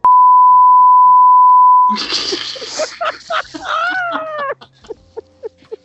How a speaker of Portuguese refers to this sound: Censura aí, por favor.